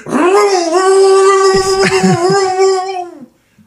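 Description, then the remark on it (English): A voice imitates a V8 engine revving out by a parking garage at night: a loud, buzzing drone that climbs in pitch and holds steady for about three seconds, with a few brief sputters partway through. “I heard a fucking I heard a V8 go nuts out there.”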